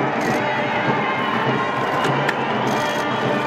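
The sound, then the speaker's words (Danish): A large outdoor crowd at Buckingham Palace cheers and shouts continuously as Queen Elizabeth steps onto the balcony during a large military parade opening four days of celebrations, with people taking photos; a dense roar of many voices with occasional sharper whoops rising above it, loud and sustained throughout. “Der bliver bare klimtet løs med kameraer, og folk er kjuger, og er altså rigtig glade for deres dronning.”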